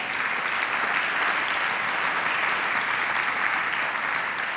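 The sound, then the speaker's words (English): An audience gives a steady, sustained round of applause for boxer Mikey Garcia for being there, dense clapping holding at an even loudness throughout with no voices standing out. “Guys, let's give Mikey Garcia a big round of applause, please, for being here.”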